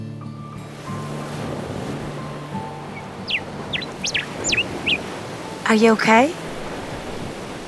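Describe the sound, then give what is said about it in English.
Steady wash of ocean surf rolling onto a beach fills the background, with a few high chirps partway through and a brief spoken question near the end. “So I was rather surprised when we were walking on the beach at sunset well, I actually remember it like this.”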